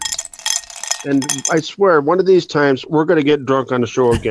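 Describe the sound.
Ice cubes clink and rattle in a glass for about a second, a bright, close jangle, before a man starts talking and the clinking drops away beneath his voice.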